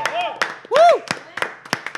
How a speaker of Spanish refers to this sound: Ahorita vamos a hacer unas menciones honoríficas al equipo de producción. Un aplauso para este equipo de producción.